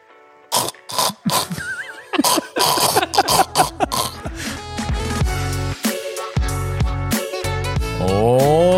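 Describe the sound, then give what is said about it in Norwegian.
A voice imitates the loud, noisy breathing most people make while asleep: several raspy snorting breaths in quick succession, followed by music that carries on to the end. “Den, en majoritet vil jeg påstå, av befolkningen puster sånn her når de sover.”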